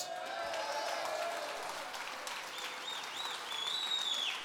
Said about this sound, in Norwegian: Ja, det er applaus!